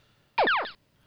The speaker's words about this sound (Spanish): He recibido algunos comentarios acerca de ese sonido que acabas de escuchar, ese lacercito, que estoy utilizando de transición o cortina entre una noticia y otra, que mucha gente no le gusta